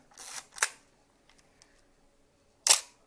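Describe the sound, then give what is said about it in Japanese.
A Nikon FM3A film SLR camera with a titanium shutter curtain fires without film: a quick two-part mechanical snap near 0.2–0.6 s, then a faint ticking pause and one more sharp, bright shutter clack. “あのー、これはですね、ニコンっていう、ニコンは今でもあるので、まあ、ライカもあるんだけど、ニコンの、えー、FM3A っていう、えー、フィルムカメラですね。”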